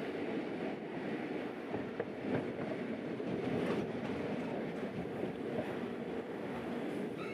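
A train of the twentieth convoy with cattle wagons, just departed near Meerbeek in April 1943, rumbles steadily along the rails, a dense, continuous low roar with faint clattering ticks running through it, fairly loud throughout, with no voices.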